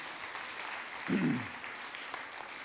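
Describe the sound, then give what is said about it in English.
A church audience claps steadily for Vacation Bible School volunteers in a dense wash of applause, with a brief swell and a low vocal whoop partway through before the clapping carries on evenly. “So give your yourselves a round of applause, absolutely.”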